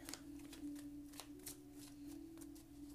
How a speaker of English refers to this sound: I am shuffling the Modern Witches Tarot, and let's get started.